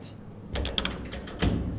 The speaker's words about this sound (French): Et ensuite, on fait un séchage. Donc ça, c'est un séchoir micro-ondes. Hein. je peux ouvrir.